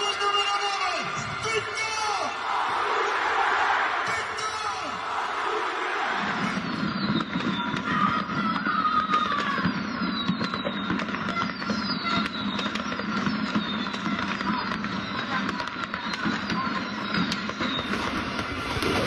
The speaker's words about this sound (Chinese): 周中前几天打平乌迪内斯之后，那不勒斯球迷在他们自己的主场，就是看着大屏幕，这个看着。球队客场比赛时候，就是在自己的主场庆祝的那样的声效，还有在街上放炮的那个声效，好不好？